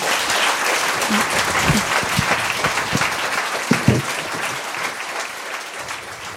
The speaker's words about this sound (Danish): og øh, vi giver dig lige en hånd til. Ja.